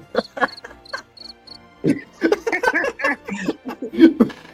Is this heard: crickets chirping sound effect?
yes